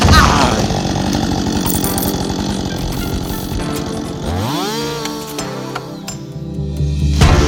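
A chainsaw cutting trees roars, its engine buzzing steadily and then shifting pitch as it bites into wood, with metallic clinks and rattles mixed in before revving hard again at the end.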